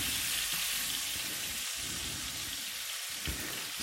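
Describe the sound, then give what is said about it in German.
Steady, dense sizzling of food frying in a small, rather full pan, a continuous crackling hiss with a few brief low bumps, no talking. “So, das ist auch ein bisschen viel hier für die kleine Pfanne, aber muss man dann beim Wenden so ein bisschen darauf achten, dass jede Ecke mal ein bisschen drankommt.”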